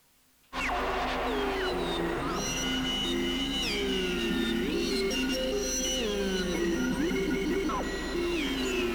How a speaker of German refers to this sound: ein paar Vögel. Galaktische Vögel, die zwitschern.